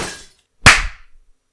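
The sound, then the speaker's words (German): A door bangs hard into someone's head in one sudden, heavy knock with a dull low thump and a brief rattling decay, following a short burst of rustling noise. “Scheiße, es tut mir leid, ich wollte dir nicht gegen deinen Kopf hauen.”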